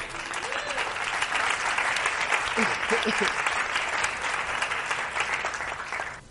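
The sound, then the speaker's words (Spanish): An audience claps steadily for about six seconds for two volunteers coming up to the front, a dense, even wash of applause at a fairly loud level, with a few faint voices mixed in underneath. “Un aplauso para ellos.”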